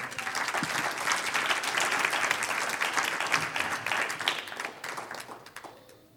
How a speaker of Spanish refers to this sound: Dele un aplauso, Señor.